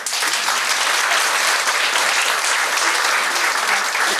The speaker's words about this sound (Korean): 일단 한 번 더 감사의 박수를 보내드릴게요.